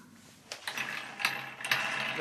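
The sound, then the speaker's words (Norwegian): A rotating coat hook in the hallway of an old, yellow wooden villa is flicked and spins with a dry, mechanical rattle, sharp clicks marking each push before the whirring continues in a steady clatter. “stikker hodet inn i gangen på den gamle, gule trevillaen og knipser borti en roterbar klesknagg.”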